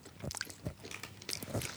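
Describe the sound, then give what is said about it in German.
Someone chewing crunchy potato chips, with four or five quick, crackly crunches in an uneven rhythm. The bites are moderately loud and bright, and no one speaks. “oh ja, wenn man ein bisschen drauf rumkaut, wird es scharf.”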